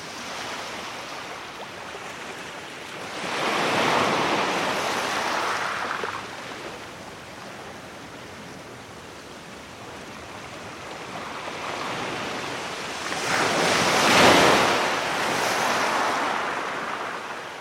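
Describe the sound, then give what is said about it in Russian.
Sea waves wash onto a beach beside a walled-off party area, in two big surges, swelling and breaking around four and fourteen seconds, with a steady hiss of surf and light wind between them; no voices. “Сам как бы за этой стеной просто гуляю, которая разграничивает зону вечеринки и пляж.”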